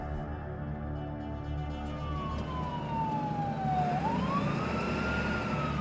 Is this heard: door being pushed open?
no